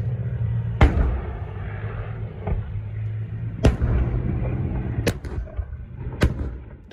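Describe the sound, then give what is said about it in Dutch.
Heavy weapons fire during a German and Dutch military exercise on Sardinia, in four sharp, dry bangs spaced a second or two apart, each a loud crack over a steady low rumble of engine-like background noise. “Ja, droge, harde klappen.”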